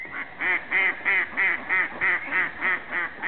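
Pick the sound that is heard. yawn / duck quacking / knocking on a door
duck quacking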